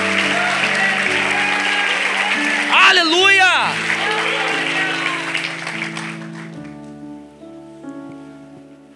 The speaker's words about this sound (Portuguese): Aplauda ele o mais alto que você puder.